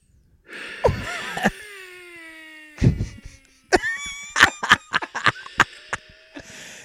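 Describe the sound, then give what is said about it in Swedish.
Squeaky wheezing breaths on the exhale with whistly, quacking tones, repeated several times over a few seconds and broken by short crackly catches and clicks. “Det låter som en liten anka som sitter och röker på.”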